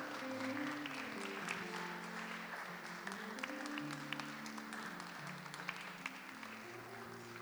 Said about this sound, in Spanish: Si pueden darle un fuerte aplauso al Señor, déselo en este momento.